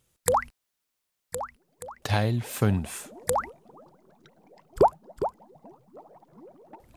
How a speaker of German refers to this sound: Der Bubbelmuck blubbert aus Wanne und Brunnen.